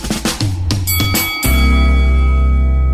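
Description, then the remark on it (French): A few quick percussive hits lead into a loud bell strike that rings on with a sustained, shimmering tone for the rest of the moment. No one speaks. “Ah, j'aurais voulu entendre la cloche.”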